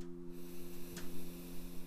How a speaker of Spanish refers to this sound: Empezamos este episodio practicando tres respiraciones. Una respiración profunda para conectarnos con nuestro cuerpo. Inhalamos